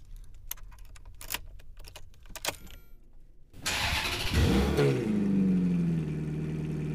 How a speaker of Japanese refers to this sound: リアミッドに縦置きで搭載されたのはコンパクトな自然吸気 V8 エンジンそれではフェラーリらしい甲高く官能的なプレミアムサウンドを味わってください。